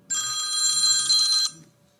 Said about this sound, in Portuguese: Esse telefone aqui me perturba